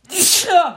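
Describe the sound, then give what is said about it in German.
A single loud sneeze: a sharp breathy burst of air followed by a short voiced tail as it trails off. “Gesundheit. Entschuldigung.”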